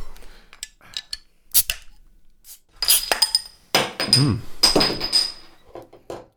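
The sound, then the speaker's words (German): A beer bottle cap being knocked off against a table edge: several sharp knocks and scrapes with bright glassy clinks and a brief metallic ring, followed by a quick clatter. Someone murmurs once. “Du hast die Tischkanten genommen, oder?”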